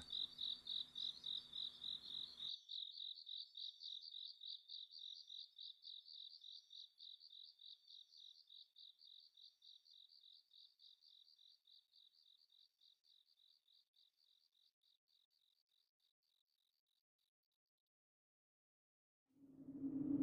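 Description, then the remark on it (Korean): A cricket chirps inside a basement PC room (internet café) in a rapid, steady pulsing trill that gradually fades away over several seconds, with faint background noise at the start and a brief low rumble at the very end. “다시 돌아온 그곳엔 귀뚜라미가 울고 있었다.”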